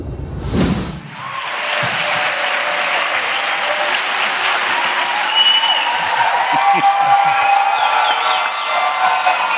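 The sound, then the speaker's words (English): An audience at the 92nd Street Y, a community center on Manhattan's Upper East Side, at an on-stage chat about a new book and science communication, breaks into sustained applause after a sharp opening burst. The dense clapping holds steady and loud for several seconds, with faint whoops and voices mixed underneath. “keep the applause when you get them.”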